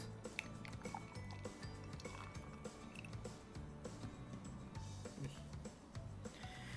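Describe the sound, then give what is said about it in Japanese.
Beer glugs steadily from a can of Beery into a glass, a continuous pour with rhythmic gurgling pulses and a fizzy hiss, plus a few light clinks along the way. “はいじゃあビアリーの方からねちょっと開けてついでいきますよいしょ硬い 硬いなよあれ開かないあいた なんか硬かったですねプルタブがよし次ます”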